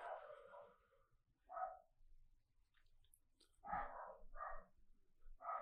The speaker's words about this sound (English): And if you hear my dog Buster in the background, sorry, Bruiser Nation, it happens.